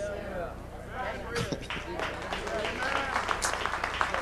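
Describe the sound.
A few scattered hand claps, sharp and irregular, sound under people talking, sparse rather than a steady round of applause.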